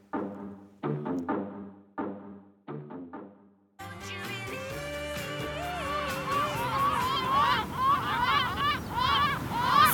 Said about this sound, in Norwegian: Skrikende måker som sirkulerer rundt hustak, et velkjent syn på sommerstid i Norge. I løpet av de siste tiåra har måker etablert seg i tettbygde strøk eh, til stor irritasjon for folk som vil ha takterrassen sin i fred.